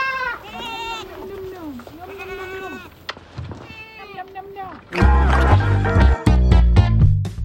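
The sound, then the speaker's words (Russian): Goats on a farm bleat in a series of wavering, nasal calls, several in a row, before a louder, denser burst of sound takes over in the final seconds. “И вы только что слышали, как звучит работа нашего нового гостя.”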